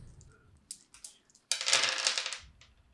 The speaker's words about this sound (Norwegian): Eh, så slår du eh, blast ni, så det er ni terninger.